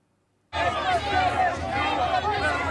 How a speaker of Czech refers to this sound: Záběry z víkendového Londýna. Skupina policistů se takto musela krýt před davem pro palestinských demonstrantů. Každou sobotu se pravidelně v britské metropoli scházejí desítky i stovky tisíc lidí.